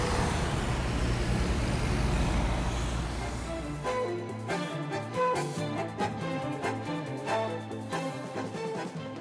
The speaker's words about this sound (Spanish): Estos niveles de ruido son los que se deben soportar en un departamento en la ciudad si uno quiere abrir la ventana.